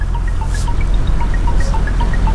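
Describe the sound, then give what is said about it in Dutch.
A ferryman sprays river water from a garden hose over the empty car deck of a river ferry to clean it, with splashing and trickling over a steady low rumble and a couple of brief hissing bursts. No one speaks. “Het ligt stil aan de overkant en de veerman loopt met een tuinslang over het lege autodek. Hij spuit met rivierwater zijn pont schoon.”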